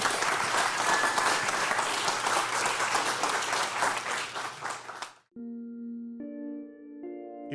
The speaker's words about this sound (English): Please stick around. Let's give one more big round of applause for Tim.